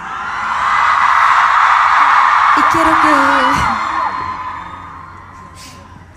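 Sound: crowd shouting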